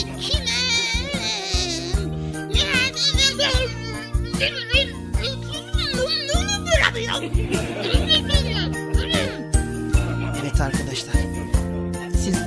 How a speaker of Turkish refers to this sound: sordum sarı çiçeği ilahisinin müziğini girelim.